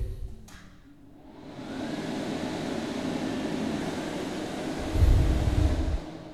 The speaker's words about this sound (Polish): Po drodze zeszedłem do łazienki. Mogę puścić wodę. Włączyć suszarkę.